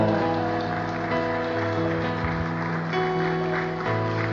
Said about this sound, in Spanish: Los hombres nomás aplauden, mira.